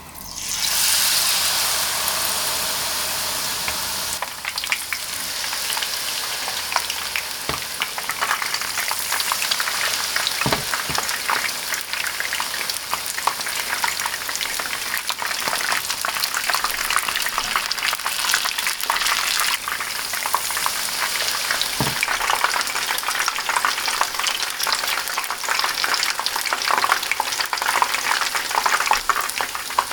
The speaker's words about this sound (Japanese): 今が旬舞茸の天ぷらのいい音それではお聞きください